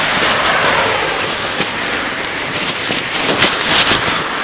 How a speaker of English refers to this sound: A rainy morning. It's just started raining. We've walked down here and the rain just started.